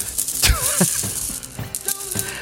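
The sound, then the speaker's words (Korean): Marbles rattle and clack together inside a closed hand during an odd-or-even guessing game on a radio show, a quick run of dry clicks shaken in bursts over a couple of seconds. “이 구슬소리 들리니 니들?”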